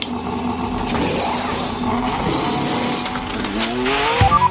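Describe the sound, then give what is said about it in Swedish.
A high-revving Formula 1 car engine screams as it accelerates, its pitch climbing through quick, almost seamless gear changes, loud, with a brief tire squeal near the end and no voices. “Så när du växlar så hör du knappt att det är en annan växel.”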